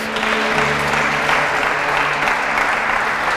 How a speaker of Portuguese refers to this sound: Ah, dá um aplauso a ele aí, pelo amor de Deus.